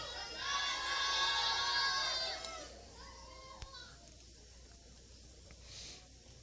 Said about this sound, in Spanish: Y los niños que decían, niños, Niños, fuerte, ahora sí pueden gritar.